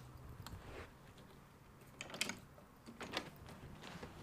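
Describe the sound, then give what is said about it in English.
The latch and handle of a hotel room door leading outside are rattled and clicked several times as someone tries to open it, producing short metallic clacks and scrapes over a low background rumble, with no one speaking. “Literally, how do these doors work?”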